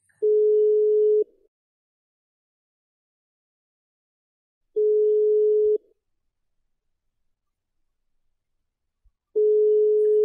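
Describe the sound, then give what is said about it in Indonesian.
A telephone ringback tone while placing a call to a friend sounds as steady single-pitch beeps, each about a second long, repeating roughly every four seconds with silence in between, clear and alone with no talking. “Penasaran jawabannya gimana sama pertanyaan-pertanyaan nanti? Kita telepon ya.”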